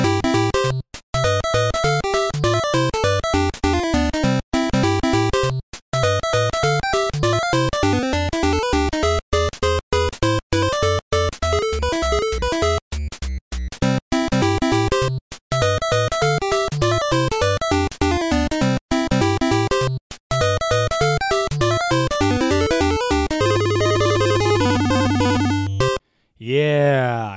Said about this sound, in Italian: Ma adesso ci sentiamo un po' di jazz. Anzi di NES.